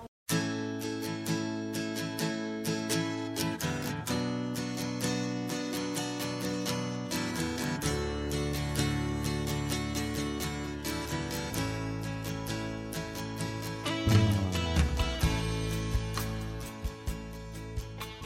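A full-band rock-pop song plays steadily at moderate volume, with strummed guitar, bass, drums and layered harmonic textures filling the mix, growing slightly louder and busier near the end.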